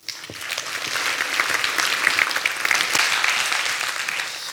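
Steady audience applause welcoming a speaker at a lecture on melancholy in pop music, a dense wash of many hands clapping at once, fairly loud, sustained for several seconds without voices over it.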